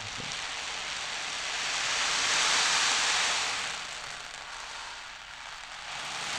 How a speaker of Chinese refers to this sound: 然后还有一个是我自己也很喜欢，是海浪的声音这样子。